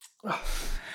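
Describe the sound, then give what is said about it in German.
A quick inhale, a brief pause, then one explosive, noisy sneeze burst that sustains for about half a second, fairly loud, with no talking. “Gesundheit.”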